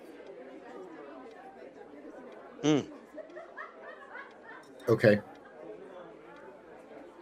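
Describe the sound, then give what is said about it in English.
A steady din of overlapping small conversations fills a busy bar, many voices murmuring at once, with a couple of sharper, louder bursts of voice or laughter rising briefly above the chatter. “Shadow through the music, through the through the din of of the you know small conversations that are going on in the bar.”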